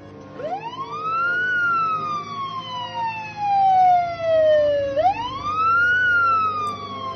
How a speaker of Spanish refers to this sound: podía oír las sirenas en la distancia, cada vez más fuertes.